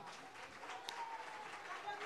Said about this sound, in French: Notre jury doit malheureusement s'en aller. On peut les applaudir au passage.